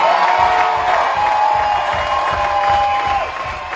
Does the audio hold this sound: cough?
no